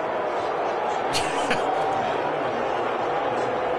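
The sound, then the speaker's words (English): A large crowd booing in a steady, dense roar of many voices that holds throughout, with a couple of sharp smacking thuds cutting through partway in. “Is that booing?”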